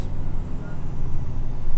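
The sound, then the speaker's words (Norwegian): A steady low engine rumble fills the ride inside a moving route 25 city bus heading to a museum, with a continuous wash of road and traffic noise throughout. “Den bussen her skal jo forbi der hvor jeg jobber.”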